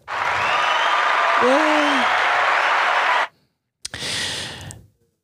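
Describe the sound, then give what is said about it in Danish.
A burst of applause sound effect, dense clapping and cheering for about three seconds, cuts off abruptly, then a shorter second burst of clapping follows after a brief silence. “Kan du lave klappelyden?”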